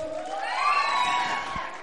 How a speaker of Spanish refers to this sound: Ok. Aplauso para el número dos. Aplauso para el número cuatro.